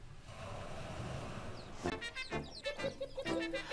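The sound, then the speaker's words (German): A chicken clucks several times in quick, uneven bursts, fairly loud, after a couple of seconds of steady background hiss. “Hühner und Strauße sind die engsten Nachfahren des Tyrannosaurus Rex.”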